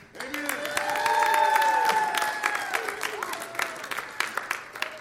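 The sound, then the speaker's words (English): An audience breaks into sustained clapping with whoops and cheers to thank a worship team and Bible study leaders, the applause swelling early, holding strong, then gradually thinning out toward the end. “Before I get into the details of this, can I have you guys make some noise and just say thank you to our wonderful worship team, to all of the Bible study leaders who have been pouring out their hearts on Thursday nights?”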